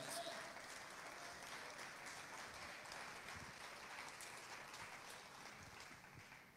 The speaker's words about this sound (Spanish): Vamos, de otro fuerte aplauso. Vamos, iglesia.